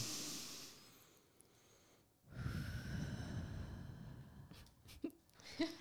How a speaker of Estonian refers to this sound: hästi hea tehnika on tegelikult ongi hingamine, vahel ongi see, et paned korraks silmad kinni, keskendud oma hingamisele